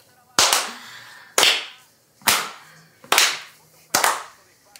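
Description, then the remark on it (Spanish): Five loud, sharp hand claps at a slow, steady pace, each followed by a short ringing echo, with no talking. “Me imagino que también estaban diciendo que me iban a poner a aplaudir así.”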